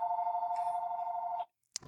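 A landline telephone rings with one long, steady electronic tone at a fixed mid pitch for about a second and a half, then cuts off abruptly. A short click follows in the silence.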